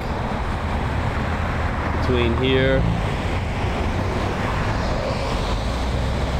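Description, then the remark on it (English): A steady, dense roar of heavy traffic from twelve lanes of the West Side Highway (12th Avenue, West Street) fills the whole recording, with a brief tonal honk-like sound midway and a few words spoken over the noise. “This is on the west side of 12th Avenue, West Street, West Side Highway and there are one, two, three, four, five, six, seven, eight, nine, ten, eleven, or 12 lanes of traffic”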